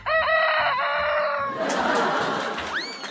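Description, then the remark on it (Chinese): A black-bone silkie rooster, raised at home from a chick bought at the market, crows once at five in the morning, a loud, strained cock-a-doodle-doo lasting about a second and a half, then trails into a noisy wash with a brief rising chirp near the end. “就是今天早上凌晨五点，那个被给予希望下蛋给我吃的乌鸡，居然打鸣儿了。”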